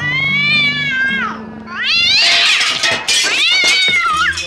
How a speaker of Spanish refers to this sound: Te ponemos de nuevo al gatito, así no te haces mala sangre.